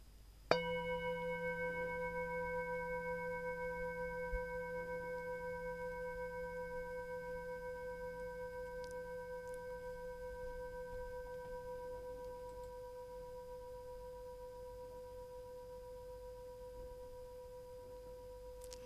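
A singing bowl is struck once and rings out with a clear, layered metallic tone that sustains and slowly fades across the whole stretch, heard alone with no talking.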